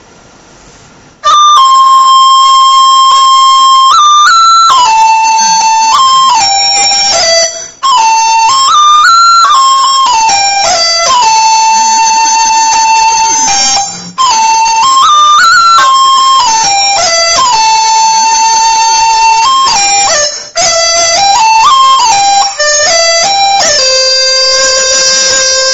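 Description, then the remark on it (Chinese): A qudi bamboo flute plays a Jiangnan sizhu melody alone, with flowing legato phrases in a bright mid-high register, ornamented turns and a few brief pauses for breath. “比如说是江，大家这个听到曲笛的声音，感觉就是一种江南水乡的感觉，水乡的感觉。”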